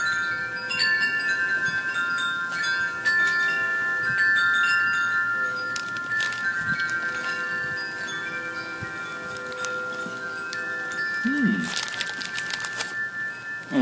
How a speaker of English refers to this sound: Mmm, what a beautiful night. Wind chimes are singing, full moon is out, train is going by.